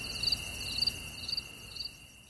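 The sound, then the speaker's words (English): Steady chirping of crickets fills a quiet woodland, a continuous high trill pulsing in regular bursts over a soft low background hush, with no voices present, played as a sound effect. “And then let's say if I'm I'm talking about going in the woods, I can just Yep. Just turn on”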